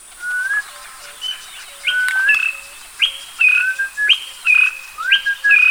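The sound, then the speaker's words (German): A person whistles an imitation of a honey hunter's call to honeyguide birds: a series of about five clear, stepped two-note whistles, fairly loud, with no talking. “Es gibt so einen Pfiff, der ist ungefähr so.”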